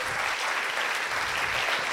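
An audience applauds steadily, a dense, even patter of many hands clapping at once with no pauses, filling the whole moment at a moderate, consistent loudness.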